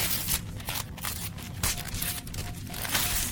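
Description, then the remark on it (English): Wrapping paper being ripped open from a present in a few quick, noisy tearing bursts, a steady crinkly rustle that swells and pauses over about three seconds, with no voices. “I love ripping paper.”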